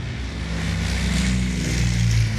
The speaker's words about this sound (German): Als das kleine Flugzeug vorbeifliegt, kann Henry Dave Cornell durchs Fenster lächeln sehen. Kurze Zeit später setzt das Flugzeug vorsichtig auf die verschneite Landschaft auf.